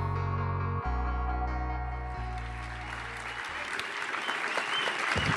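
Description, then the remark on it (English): An audience at the DGA Theater in New York, after a screening of The Irishman, breaks into loud, sustained applause for Martin Scorsese, a dense wash of clapping that builds and grows more energetic, with sustained musical tones fading out beneath it at the start. “Can we give it up again for Mr. Scorsese, please?”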